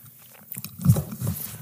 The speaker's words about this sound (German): Der Klassiker. Solide. Ja, das ist mir schon häufiger passiert. Gut, gut aufgefangen. Wieder das Mikro mal umgefallen.